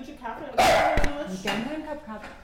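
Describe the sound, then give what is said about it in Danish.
Two small dogs, a dachshund named Jeppe and a Maltese named Emily, bark in a couple of sharp yaps about a second apart, with a person talking softly in the background. “Hun bor meget flot, og der er helt rent, selvom hun har to hunde.”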